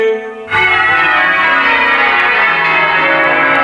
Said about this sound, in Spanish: Sí que tenemos la certeza de que hace 180 años en la jura de Isabel II se cantó el Te Deum, el himno de acción de gracias. Y al acabar el acto sonaron las campanas para mostrar regocijo público por la declaración de mayoría de edad de la reina.